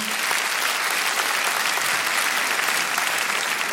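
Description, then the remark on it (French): An audience claps to show who among them has already been camping, a dense, sustained wash of applause that holds at an even loudness for a few seconds without any voices cutting through. “Par applaudissement, ce soir, montre qui a déjà fait du camping dans la salle”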